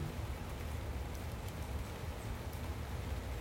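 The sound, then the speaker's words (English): Steady, soft rain falls continuously, a dense wash of fine patter with no pauses or distinct drops standing out. No voices are heard. “Can you hear the sounds of the rain?”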